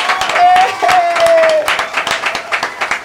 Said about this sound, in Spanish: ¡Aplausos para su majestad Ricardo Muñoz Zurita!